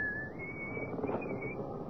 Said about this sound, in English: He's coming now, whistling in the dark. And I can't say I blame him.